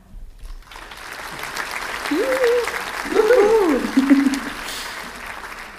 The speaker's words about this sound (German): Und mit diesem Applaus verabschieden wir uns für heute.